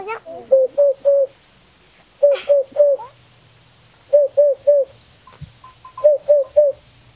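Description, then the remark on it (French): A Eurasian hoopoe, a brown-and-white bird with a small crest on its head, calls its soft, hollow 'oop-oop-oop' in four evenly spaced bursts of three low notes, clear over faint background noise. “Comme il a une huppe, on l'a appelé la huppe.”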